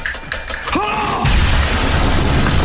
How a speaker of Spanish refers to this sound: El bombazo, claro, cuando, cuando le borra la cara, claro. Cuando Gus Fring está a punto de inyectarlo, digamos, para, eliminar a, a Héctor Salamanca, y empieza a tocar, escucha. Claro. Empieza a tocar el timbre de su silla de rueda y ocurre esto.